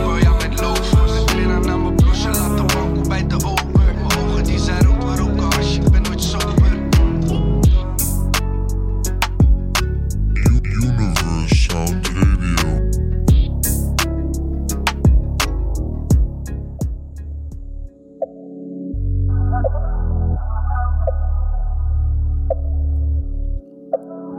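A Dutch rap song plays loudly with a steady, punchy beat and dense backing, then thins near the end into sustained synth tones as the track winds down.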